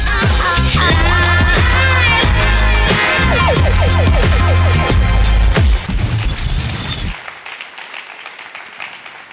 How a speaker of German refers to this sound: Deswegen ISF München, lasst uns die Pastoren vom ISF Stuttgart mit einem tosenden Applaus begrüßen und ihr zeigen, dass die Münchner eine Gastfreundschaft vom Feinsten haben.